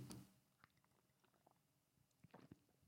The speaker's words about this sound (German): Ähm, ich nehme gerade mal einen Schluck Kaffee.